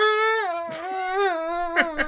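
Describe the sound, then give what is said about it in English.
A voice imitates the high, wavering squeal of air escaping from a stretched balloon neck, held steadily for about two seconds with a few breathy bursts, fairly loud. “to see if it makes that sound like when you you know you, you make a balloon taut and you go.”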